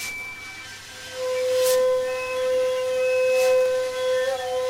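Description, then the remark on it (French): A steady, windy hiss with a sustained droning tone, joined by two soft periodic swooshes of majestic wind turbine blades sweeping past on a mountain ridge in Ardèche, France, on a cool morning. There is no talking. “Et je me mets à jouer à cache-cache avec de majestueuses éoliennes.”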